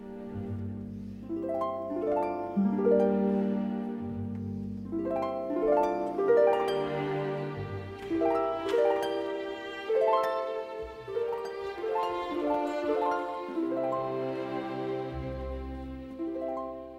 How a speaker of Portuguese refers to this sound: E que tal ouvirmos justamente um destes, o francês Claude Debussy, em sua dança sacra e profana, com uma interação quase mágica da harpa solista com a orquestra de cordas.